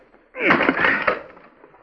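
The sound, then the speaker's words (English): A single heavy splintering crash as an axe breaks through the panel of a locked wooden door, loud, with a brief crackle of breaking boards fading out over about a second. “Yeah, you got through the panel”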